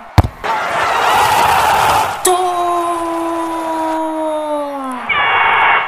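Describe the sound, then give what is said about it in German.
A loud, rushing roar of a football crowd at a match cheering and shouting with joy after a goal, then a long drawn-out high shout held for several seconds, and a final burst of crowd noise. “Alle schreien vor Freude.”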